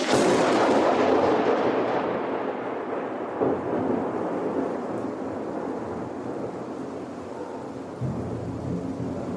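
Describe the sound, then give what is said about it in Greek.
A fierce thunderstorm with a long, loud rumble of thunder rolling and slowly fading, with further softer rumbles and a steady wash of heavy, pouring rain; no one speaks. “Είχε ξεσπάσει μια τρομερή καταιγίδα.”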